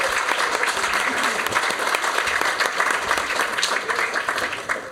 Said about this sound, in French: Donc, on peut déjà applaudir bien fort nos invités du soir.